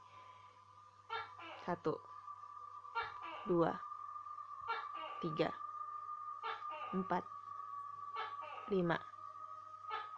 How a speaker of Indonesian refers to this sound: Suara tokek, guys kita hitung ya bentar ya kita hitung ya ini bunyi berapa kali